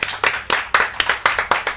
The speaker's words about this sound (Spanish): Un aplauso.